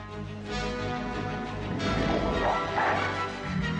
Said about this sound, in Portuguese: Que barulho de dinossauro é esse? Por que, que o Godzilla tá na lua? Porra é essa, velho? Olha só o barulho.